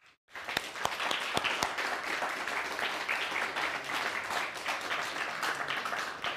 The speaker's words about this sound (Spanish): Un fuerte aplauso, por favor.